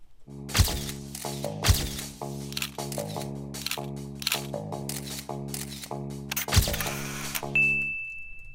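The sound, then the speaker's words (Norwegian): A paparazzi sound effect: rapid bursts of camera shutter clicks fire over a steady tonal musical bed, with several sharper flash-like snaps, ending on a high electronic whine. “Det var paparazzi-lyder, og da betyr det at det er tid for ukens Instagram.”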